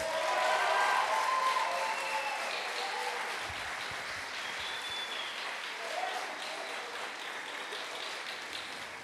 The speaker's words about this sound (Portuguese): Celebra o Senhor com as suas palmas.